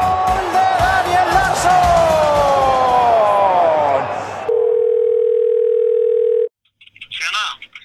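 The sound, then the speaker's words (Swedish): A loud cheering crowd gives way to a single steady telephone ringing tone as a call is placed to a foreign correspondent in Greece, lasting about two seconds, then a short silence before a voice briefly answers. “Vi ringer Utrikeskorren!”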